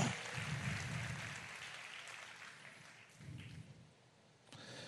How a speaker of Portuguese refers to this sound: Dê um forte aplauso.